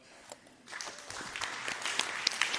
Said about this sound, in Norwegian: Takk for det, og gi hele panelet en stor applaus for flotte sluttappeller.